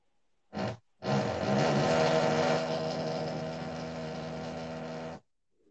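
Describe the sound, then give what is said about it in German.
A power drill whirs as a man drills: a quick short burst, then a steady, loud, buzzing whine held for about four seconds before cutting off. No one speaks. “mein Vater ist am Bohren.”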